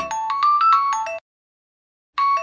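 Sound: mobile phone ringing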